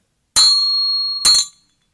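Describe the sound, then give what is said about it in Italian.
A slightly out-of-tune bell is struck twice, loud, its bright metallic ring sustaining between the hits before the second strike fades out quickly, with no voices. “Una campana che non ha un bel suono.”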